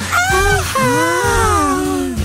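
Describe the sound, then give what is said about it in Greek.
Several people howl together on a count of three to let off stress, a loud, sustained vocal wail lasting about two seconds, their overlapping voices sliding up and down in pitch before trailing off. “Έλα, πάμε ουρλιαχτό από συμπίεση.”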